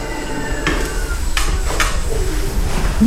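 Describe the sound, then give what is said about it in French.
A thin, steady high-pitched whistle from a telescope drive motor running at tracking speed, turning at the same rate as the Earth in the opposite direction, faint under background noise and broken by a few soft knocks and rustles. “Le petit sifflement qu'on entend là maintenant, c'est le télescope qui est en route et qui est en vitesse de suivi.”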